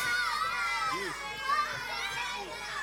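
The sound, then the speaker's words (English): A crowd of children shouting and chattering excitedly as they walk out of a church waving palm branches and yelling Hosanna, many overlapping voices calling out at once with a lively, continuous din. “Okay, now I want you to walk out of the house, walk out of the church, and wave your palm branch, everybody, and I want you to yell Hosanna as loud as you can, okay?”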